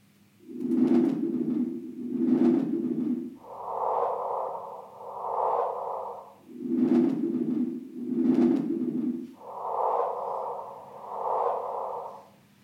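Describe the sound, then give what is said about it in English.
A gravitational-wave detector signal rendered as sound, a signal lasting about a tenth of a second that arrived at three o'clock in the morning: a looping pattern of paired low, breathy hums with sharp clicks at their onsets, alternating with pairs of higher, hissy tones, steady and moderately loud with no talking. “That's it a little blurb of sound lasting about a tenth of a second, arriving at three o'clock in the morning.”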